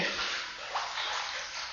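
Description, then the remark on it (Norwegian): Continuous rush of water in a large, shallow bathtub of warm water, with a slight splashing disturbance partway through as a person steps into it. No talking. “det er ganske sånn stort lite, sånn badekar, men det ser ikke så veldig dypt ut her.”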